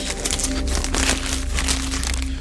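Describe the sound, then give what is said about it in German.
Continuous crinkling and rustling of a plastic bag of excavation finds, holding bones and teeth, being opened and handled in a castle cellar, with a steady low hum in the background and no voices. “Unten im Schlosskeller öffnet Benjamin Schürich für mich die nächste Tüte mit Fundstücken.”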